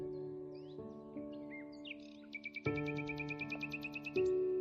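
Birds singing with scattered chirps, then a quick run of repeated high tweets in steady rhythm, over a low sustained tonal hum in the background.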